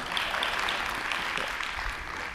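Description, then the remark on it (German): A crowd claps steadily, a dense, continuous wash of many hands applauding at moderate volume, with no voices standing out. “Und gerne Applaus, ja.”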